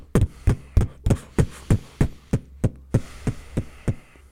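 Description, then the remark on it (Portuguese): A steady run of about a dozen punchy, bass-heavy beatbox kick drum hits made by striking the mouth while breathing freely, evenly spaced, with no talking in between. “E tem um outro que é só bater a boca. Que eu consigo respirar e fazer.”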